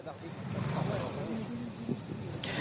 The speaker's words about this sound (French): il y a déjà plusieurs tracteurs autour de vous.